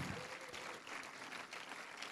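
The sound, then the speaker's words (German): Audience applause for all the helpers at a worship and prayer gathering: a steady, dense wash of many hands clapping at once, sustained at an even loudness for the full two seconds with no voices standing out. “Lasst uns mal allen, die hier mitwirken, einen Applaus geben.”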